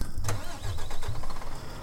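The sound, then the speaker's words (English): A vehicle engine starts up with a brief cranking burst while parked on the side of a highway, before driving to Graz, Austria, to pick up an excavator, then settles into a steady low rumble, fairly loud with no talking. “So, um, let's turn on the engine.”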